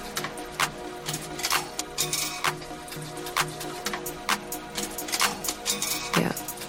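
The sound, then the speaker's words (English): A coin-operated photo booth, started with four Canadian one-dollar coins, runs with a steady motor hum under irregular mechanical clicks and clatter, ending in a heavier kerchunk as the knife cuts the photo paper from the reel, moderately loud with no voices. “You're mostly just hearing the motor, like kerchunk sound. Then there's a loud kerchunk sound, kerchunk sound.”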